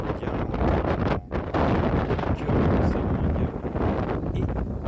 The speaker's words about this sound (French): Et puis, puis je voulais aussi vous, faire écouter le bruit de la mer parce que c'est c'est ça.